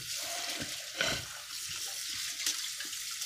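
Steady hiss of a running tap with dishes being washed underneath, punctuated by a few soft clinks and knocks of plates and cutlery, including two sharper clatters.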